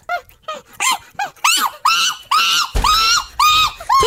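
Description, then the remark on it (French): A capuchin monkey gives a rapid string of high, squealing chirps, short at first and then longer and louder, with no one talking. “C'est un capucin.”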